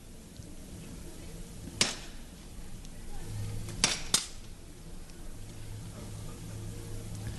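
Three sharp knocks of a hammer strike over a steady background murmur: one single rap, then after a pause two more in quick succession, each crisp and percussive.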